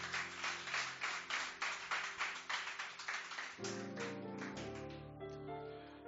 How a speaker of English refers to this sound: I think you can clap your hands again for Jesus.